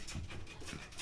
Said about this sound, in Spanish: Ahí disculpen por mi perro, la ah, tos.